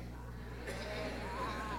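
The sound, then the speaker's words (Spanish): Voices imitate sheep and goat bleats, a wavering, nasal cry rising after a brief pause, moderately loud over a steady low hum. “Entonces, vean como hacen las vacas. Bien. ¿Y las ovejas? ¿Y las cabras?”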